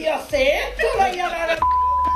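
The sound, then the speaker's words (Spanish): Lively speech is cut off by a steady, pure electronic beep that starts abruptly and holds for about half a second to the end, loud, like a censor bleep. “Ah, vale, con el pitido, con el pitido lo claro.”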